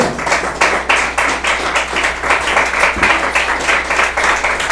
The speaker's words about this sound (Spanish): Dale una de palmas al Señor con todo su corazón.